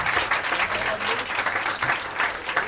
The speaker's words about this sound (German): Riesen Applaus! Für Maria.